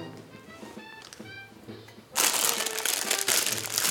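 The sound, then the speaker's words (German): A crinkly snack bag is cut open: after a quiet start, loud, continuous crackling and rustling of plastic packaging bursts in and carries on to the end. “Ich äh, schneide hier gerade die Tüte auf.”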